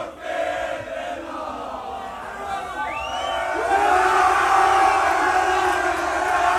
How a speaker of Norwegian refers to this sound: Det var sang og hoiing mens reporter sto og snakka med Kristoffer Løkberg. Men så viste det seg at TV 2 har filma ved siden av her.